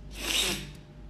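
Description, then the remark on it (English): A single quick, airy sniff through the nose by someone in a building made very cold by air conditioning, a short hissy inhale that fades out within about half a second, with no talking. “Uh, I'm sniffing because uh, it's really cold in my building.”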